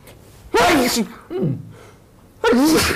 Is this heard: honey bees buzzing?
no